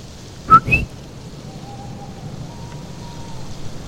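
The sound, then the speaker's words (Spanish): A coquí frog gives one sharp two-note call, a low chirp then a higher rising one, against a quiet background on a night with a full moon, with a faint, steady tone lingering afterward. “Solamente miraba la luna llena y escuchaba los cookies.”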